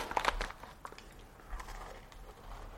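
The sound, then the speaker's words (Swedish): A sharp crunchy bite into a jam biscuit taken from a biscuit packet, followed by a few softer crackly crunches spread over a couple of seconds, fairly quiet with no talking. “Nu har jag fått upp kakpaketet här och ska ta fram en syltkaka av något slag.”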